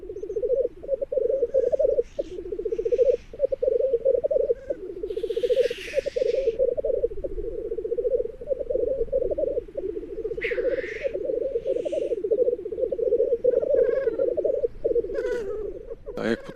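Black grouse cocks displaying: a steady, dense bubbling chorus runs throughout, punctuated by a few sharp, loud hissing calls bursting out over it, with faint bird calls in the background.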